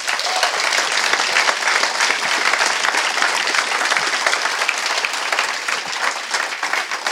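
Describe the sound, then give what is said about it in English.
Sustained round of applause from an event crowd at Level 39, thanking the people who took part, dense and steady clapping at a fairly loud, even level for several seconds, with no talking over it. “give these guys a round of applause for being”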